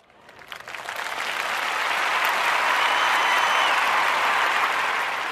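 Applause from a group swells over the first couple of seconds into a steady, dense wash of clapping that stays loud and even to the end, with no talking over it.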